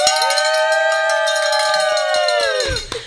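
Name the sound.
hand bell ringing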